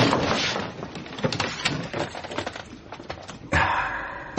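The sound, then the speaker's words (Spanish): A cabinet door in Al's office being opened, with a run of wooden clicks, knocks and rattles that builds into a louder scraping thud near the end. No one speaks. “abre la puerta de un armario.”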